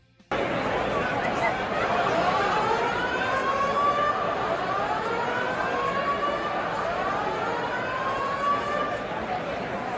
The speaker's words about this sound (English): Yeah, that's going to be a fire alarm. Maybe the last thing you want to hear when you're inside of an arena, oh. especially 10 minutes to go in a tie ball game.